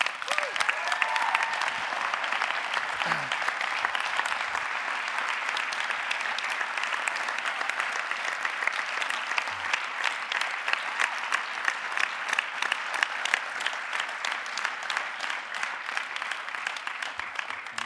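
Steady, sustained audience applause as a man steps up onto the stage, dense overlapping clapping that stays loud and even for the whole stretch, with no voices standing out above it.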